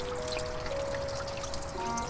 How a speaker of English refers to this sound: If somebody's fountain. Hidden behind there? Let's look. It spills into a pool.